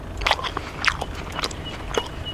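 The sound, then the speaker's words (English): Crunchy chewing and tearing as grey kangaroos in a field bite and munch grass, in short irregular bursts with no talking over it. “can you guess what the kangaroos are munching on?”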